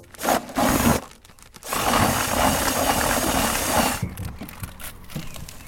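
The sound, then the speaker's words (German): A cordless drill with a mixing attachment stirs fishing bait feed at the Windhager Teich pond in the Amstetten district, Lower Austria, starting with a few short loud bursts and then settling into a steady, gritty whir for a couple of seconds before cutting off. No one speaks. “Das war der Akkuschrauber mit Rühraufsatz.”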